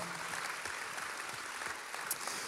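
A crowd applauds ICF St. Gallen steadily, many hands clapping at once in a dense, crackling wash of sound that holds an even level throughout, with no voices rising above it.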